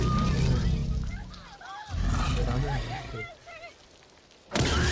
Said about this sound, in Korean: 저 공룡 소리 어떻게 만든 건지 알아? 네, 뭐 돼지 소리랑 어, 뭐 소리랑 뭐 여러 동물 섞어 소리를 예. 동시에 냈대.